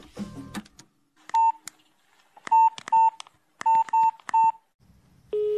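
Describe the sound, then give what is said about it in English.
A phone number for a call to a brother is punched in on a keypad: a quick series of short, clear dual-tone beeps in irregular bursts, fairly loud, followed by a steady ringing tone at the end. “Let's call your brother. Give me his number.”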